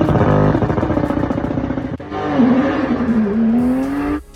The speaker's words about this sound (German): Meter aus und dann das Schreien vom Motor, das ist brutal.